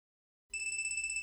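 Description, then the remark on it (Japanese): After a brief silence, a phone begins ringing with a steady, high-pitched electronic tone that flutters rapidly, fairly loud, with no voices. The phone lies on the ground about three meters away at night, its light blinking. “返事はない相変わらず音が鳴るだけである”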